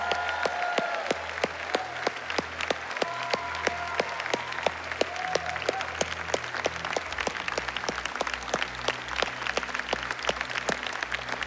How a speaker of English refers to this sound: And guys, yeah, let's cheer on these people that served for the whole weekend.